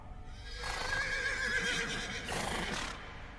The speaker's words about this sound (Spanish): Se escuchaba a la lejanía como los caballos relinchaban presas del terror.